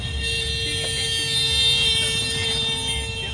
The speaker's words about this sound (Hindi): जो ट्रैफिक है one way कर रखा है दूसरी तरफ काम चल रहा है फ्लाईओवर बनने वाला है एरोड्रम चौराहे पर तो वन वे ट्रैफिक से हमको गुजरना पड़ रहा है